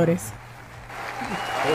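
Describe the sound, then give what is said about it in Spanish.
Audience applause: a dense, steady wash of clapping that swells louder toward the end, with a brief voice at the start. “Aplausos y”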